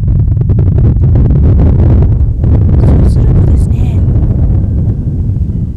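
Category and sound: nature, wind blowing outdoors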